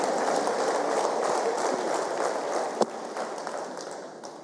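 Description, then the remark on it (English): Steady applause from a crowd, a dense wash of many hands clapping at an even loudness throughout, with one sharper single clap standing out near the end. “Yeah, now you can clap.”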